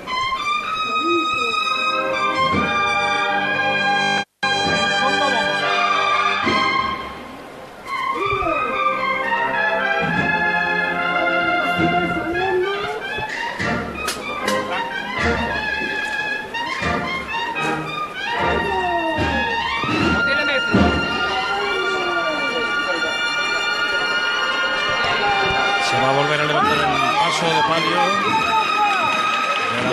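A procession band plays a march as a paso moves side to side while approaching a turn and the march changes. Loud, sustained brass melodies play over steady low accompaniment, with a brief cut early on and faint crowd murmur underneath.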